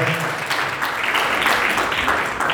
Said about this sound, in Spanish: denle un aplauso a Cristo Jesús, por favor, esta mañana.